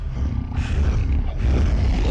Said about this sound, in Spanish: En eso, comenzamos a escuchar unos gruñidos en el exterior.